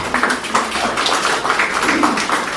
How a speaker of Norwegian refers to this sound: Er vi flinke? Skal vi gi dem en applaus, eller?